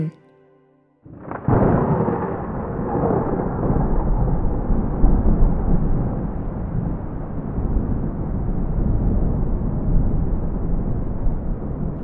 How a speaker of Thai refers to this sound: ยามค่ำคืนที่ฝนกระหน่ำตกลงมา